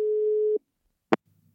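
A single steady, mid-pitched telephone ringing tone sounds for about half a second, then silence, then a sharp click like a handset being picked up, leaving a faint low hum, as a call is placed to a professor emeritus of criminology.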